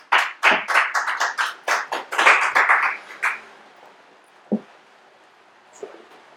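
Audience applause at a magic performance in a short burst of about a dozen distinct claps over three seconds, then fading out to a couple of scattered claps. No one speaks.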